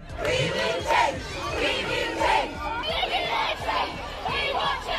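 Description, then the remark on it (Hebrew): A large crowd of young climate protesters, at Friday protests following Greta Thunberg against government indifference to the climate crisis, shouts and chants together, a dense, continuous roar of raised voices with rhythmic surges, loud throughout the five seconds. “מיליוני צעירים יצאו אחרי גרטה להפגנות בימי שישי.”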